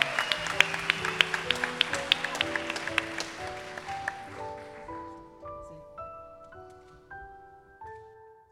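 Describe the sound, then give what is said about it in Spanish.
A burst of audience applause, dense and crackling, fades away over the first few seconds as a steady, stepwise rising sequence of bright musical notes takes over. “Sí, la aplaudimos, sí. Vale, vale, aplauso, vale.”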